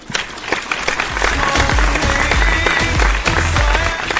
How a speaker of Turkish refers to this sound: Alkışlar.